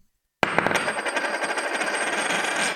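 A Krugerrand gold coin dropped from about 10 centimetres strikes a hard surface with a sharp metallic clink, then rings on with a bright, sustained shimmer that slowly fades, heard alone.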